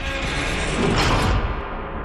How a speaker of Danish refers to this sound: Han skynder sig haltende op ad trappen. Han brager ud gennem døren fra kælderen.